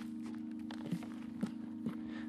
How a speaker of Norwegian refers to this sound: Jeg tar og kaster skiene opp på skuldra og spaserer bortover mot toppen.